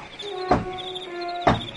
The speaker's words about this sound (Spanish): ¿Quién está llamando? Ay, espérate, voy a levantarme. Voy a ver quién llama a la puerta.